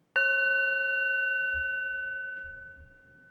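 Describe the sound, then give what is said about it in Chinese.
A singing bowl is struck once as a demonstration, producing a clear, steady metallic tone with layered overtones that rings on and slowly fades over several seconds, with no talking. “但是如果真的晚一点，我们等一下呢，就会留三到五分钟的时间，然后我会希望说大家也可以跟我们一起做一个就是静心颂钵的冥想。”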